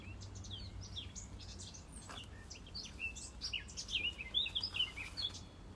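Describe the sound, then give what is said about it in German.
A small pet bird chirps and twitters in a rapid, continuous stream of high, sharp notes, growing livelier and louder toward the end, with no talking. “Na, weißt das viel zu erzählen, das Vogel.”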